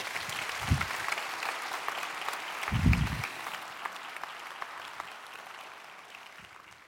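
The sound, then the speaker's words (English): Steady applause from a sizable audience thanking a panel, a dense patter of many hands clapping together for several seconds, with a few low thumps mixed in and no voices. “Hey, would you join me in thanking our panel?”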